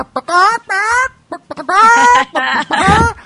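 A voice imitates a chicken's clucking in a handful of loud, warbling bursts, with short pauses between them and a rough, throaty final squawk.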